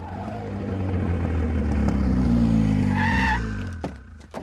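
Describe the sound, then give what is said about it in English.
A car engine roars, then tires screech in a short, shrill skid as the vehicle comes to a stop, followed by a couple of sharp clicks. “Brian pulls up to 1327 and gets out gun drawn”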